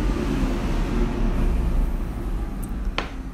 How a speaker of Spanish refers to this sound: uy, va a pasar un micro en este momento. Voy a aprovechar para tomar agua. Escuchen al maravilloso 214 que va a pasar.